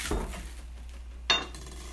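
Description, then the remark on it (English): Two separate knife chops hit a cutting board, about a second apart, as a little parsley is cut off a bunch. The sharp knocks are fairly loud over a quiet background, and nobody speaks. “Just chopping a little off that bunch.”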